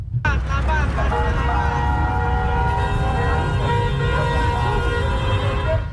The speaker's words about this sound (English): In Accra, the familiar sight of cars trapped in a gridlock is an everyday occurrence. However, an unsettling reality accompanies this urban tableau. A cloud of thick plumes of toxic fumes emanates from many of these vehicles.